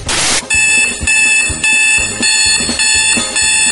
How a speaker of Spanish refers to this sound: Pretexto número 7. El despertador.